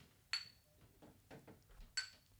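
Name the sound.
glasses clinking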